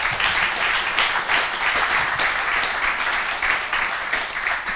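Sustained applause from a crowd for the show's guests, a dense, steady wash of many hands clapping at even loudness for several seconds, with no voices standing out.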